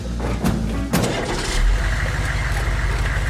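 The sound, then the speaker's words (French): A van loaded with pigs turns over with a couple of sharp clanks, then settles into a steady, loud low rumble that carries on as it pulls away toward a slaughterhouse a few kilometres away. No one speaks. “Jeudi 8 janvier, donc, Arnaldo met les cochons dans sa camionnette, direction l'abattoir, à quelques kilomètres de là.”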